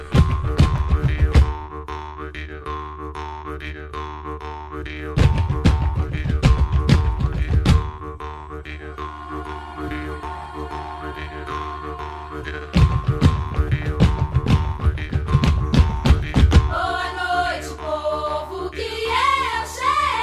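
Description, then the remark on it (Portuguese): A vocal group sings a baianá, a Brazilian rhythm, with percussive vocal sounds and sustained harmonies, as a huge, very deep bass voice booms in repeated bursts and female singers weave wavering counterpoint lines near the end. “E fazendo as, as cantoras fazendo contraponto para a voz gigante, muito grave”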